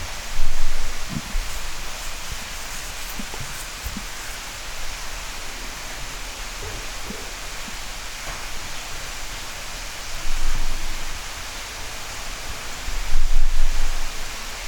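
Steady, dense rain hisses throughout a thunderstorm, with a few low swells of thunder rumbling near the start and again toward the end; no voices.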